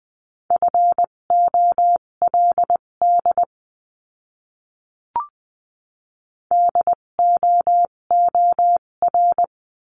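Morse code in a steady mid-pitched beep, keyed into quick dots and dashes to spell practice words at 14 to 20 words per minute. Two bursts of beeping are split by a short silence with a single click.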